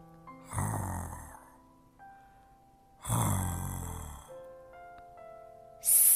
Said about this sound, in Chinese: 哎，怎么听到两个呼噜声？ 秃头章鱼盯着小猫的脸，觉得很不可思议。呼噜声越来越大，小猫的嘴也越张越大。